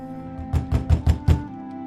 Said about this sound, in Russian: Его жена в это время изо всех сил колотила кулаками двери больницы.